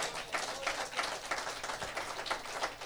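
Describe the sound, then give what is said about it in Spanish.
An audience applauds God in a steady, dense wash of many hands clapping, even in loudness throughout, with no voices rising above it. “Damos un aplauso a nuestro Dios perdonador.”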